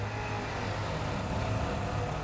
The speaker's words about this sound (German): In dem Moment fuhr ein Auto auf die Straßenkreuzung zu und knatterte über das Kopfsteinpflaster.